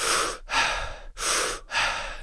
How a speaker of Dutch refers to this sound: in- en uitademen zonder pauzes tussen de in, zonder pauzes tussen de uit. Je houdt hem dus verbonden.